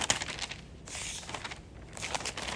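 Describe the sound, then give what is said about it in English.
Soft, overlapping rustles of thin Bible pages turning during a sermon, several bursts of crisp crinkling spread across the moment, fairly quiet, with no voices. “It, it's a holy sound of the rustling of the leaves of Scripture during a sermon.”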